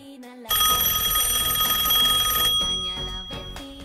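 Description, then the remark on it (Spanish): A telephone bell rings loudly and steadily for about two seconds for an incoming call in a phone-in segment, a bright metallic trill with sharp high overtones, then cuts off as other sounds and faint voices continue. “Vamos a escuchar el siguiente llamado telefónico.”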